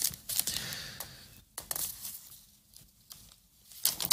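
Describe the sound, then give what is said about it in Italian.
Newspaper pages being turned to reach page 9: a run of dry rustles and crinkles, with a crisp flip partway through and another burst of paper noise at the end, no voices. “Scusate, ma non mi metto i segnalibri e poi succede che sono lento a girare le pagine.”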